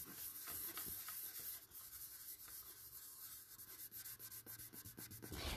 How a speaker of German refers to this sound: Das ist nämlich das Touchpad von meinem ähm, Laptop. Ich finde das Geräusch einfach so satisfying.